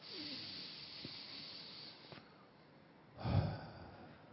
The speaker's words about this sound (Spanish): Así que tomen una respiración profunda.